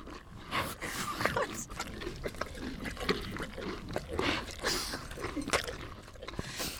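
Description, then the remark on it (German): Steady chewing from a small horse eating its feed, with wet smacking and crunching bites repeating in an irregular rhythm and no voices over it. “Schon mal im direkten Vergleich die Kaugeräusche von dem kleinen Pferd.”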